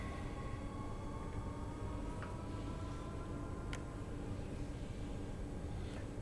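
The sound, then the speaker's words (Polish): A train reverses slowly along rails with a steady, low mechanical rumble, broken by a few sharp metallic clicks and clanks at irregular intervals. No one speaks. “E, muszę, muszę się cofnąć, może się troszkę uda, nie? E, jednak, może nie stuknę nikogo tym razem.”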